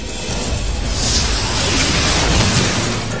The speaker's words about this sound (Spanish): Una explosión. A unos 20 metros arriba creí que era el fin.